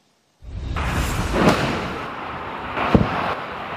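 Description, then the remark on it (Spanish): A sustained roaring rush of Hamas rockets streaking overhead above a road to Ashkelon in southern Israel, near the Gaza border, punctuated by two sharp blasts of Iron Dome missile interceptions about a second and a half apart; no voices. “viajar por carretera desde Tel Aviv hacia el sur, hacia Ashkelon, que es una de las ciudades más bombardeadas, y de pronto en la carretera aparecieron en el cielo cohetes, misiles de Hamas.”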